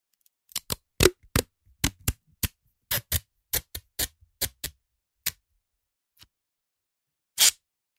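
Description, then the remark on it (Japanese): Masking tape peels off a roll in a quick run of sharp, crackling snaps, fairly loud, then after a short pause one longer tearing rip as a strip about one turn of the roll long is cut off. No one speaks. “はじめに、養生テープを切り取っておく。”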